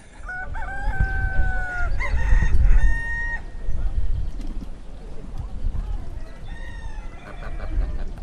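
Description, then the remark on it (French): Several roosters crow in overlapping calls, their drawn-out, wavering cock-a-doodle-doos rising and falling in pitch, with a second burst of crowing near the end over a steady low rumble. The roosters crow at night, from one o'clock on, and into Sunday morning in Couffet. “on a le bon concert de nos réveils matin, euh, qui n'étaient pas sur le bon fuseau, je pense, cette nuit.”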